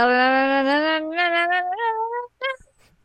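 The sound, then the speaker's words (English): A stream raid alert sound plays, a loud, drawn-out, meow-like tone that wavers and slowly rises in pitch before a brief final chirp, heard alone with no talking. “Um, so I have a, an alert that is my my raid alert.”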